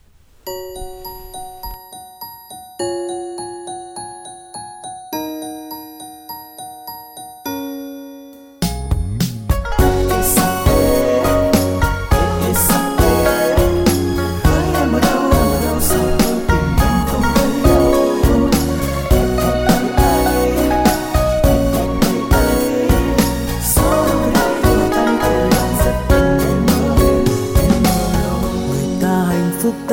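A Vietnamese pop song intro opens with slow, bell-like chiming notes, then a full band bursts in with drums and layered instruments, playing loud and steady with no vocals yet.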